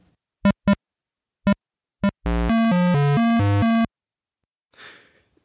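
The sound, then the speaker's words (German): Crude, buzzy beeps from an early PC game: four short blips at uneven intervals, then a loud run of square-wave tones hopping up and down in pitch, ending with a faint breathy whoosh. “Das ist ein Spiel, bei dem man einen kruden Rennwagen steuert, der einem Esel ausweicht.”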